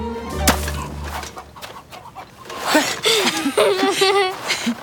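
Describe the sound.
A single sharp smack of a snowball striking a girl's head outside the door of a hair salon near the start, followed by rising, startled vocal cries and voices over a low background hum.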